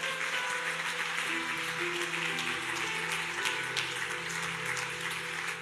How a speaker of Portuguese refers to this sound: Quantos podem aplaudir o nome do Senhor?